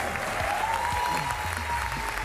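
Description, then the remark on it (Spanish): A steady burst of audience applause for Ricardo Peralta at the end of a TV programme, dense and continuous clapping from a crowd, with a faint sustained tone gliding slightly upward in the background. “Un fuerte aplauso para Ricardo Peralta.”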